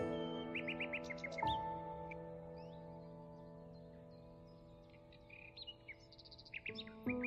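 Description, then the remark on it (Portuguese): Birds sing in quick repeated chirps and trills, with several calls layered over a steady low hum, clear, with no one speaking. “quando você observa um pássaro cantando, que vem à mente.”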